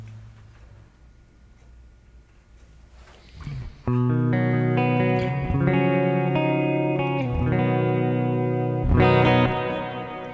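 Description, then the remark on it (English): Electric guitar chords ring out through a hall reverb preset with the mix turned up to just past twelve o'clock, a long wash of sustained, blooming tails after a quiet stretch, then loud strummed chords hanging and overlapping, no voices. “Now, being in this setup, the sound is a little different, so I want to increase the mix, which I'm going to do.”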